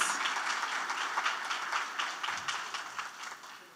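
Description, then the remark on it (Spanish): An audience applauds itself at a 15-year anniversary event, a dense wash of many hands clapping at once that holds a fairly even level for a few seconds, with no voices standing out. “So please give your hand yourself a hand of applause.”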